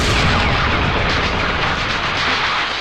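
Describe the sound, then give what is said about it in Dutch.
A loud, continuous barrage of cannon fire, heavy booms blurring into a dense, roaring rumble with no pauses and no voices. “Je vuurt geen kanonnen.”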